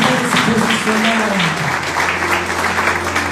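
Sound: audience applauding loudly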